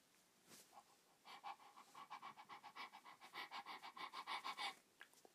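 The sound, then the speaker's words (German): A dog pants rapidly and steadily, a quick run of breathy huffs that builds over a few seconds and then stops abruptly. No one is talking. “Los, Hund, renn dahin.”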